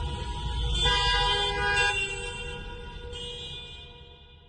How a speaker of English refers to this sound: But all the roads leading to the hospital was closed off by the officials. Nobody could get around. So people were sitting in their cars in that area and honking their horns as a sign of protest.